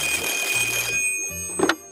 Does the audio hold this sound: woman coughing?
no